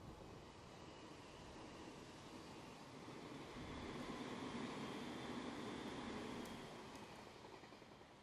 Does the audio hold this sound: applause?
no